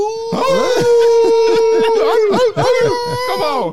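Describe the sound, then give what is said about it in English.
A person imitates a wolf howl, holding a long, loud wavering note with other voices yelping and howling over it, briefly breaking off before carrying on. “All right, so let's be some wolves right now.”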